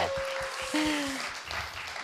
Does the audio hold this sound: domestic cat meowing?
no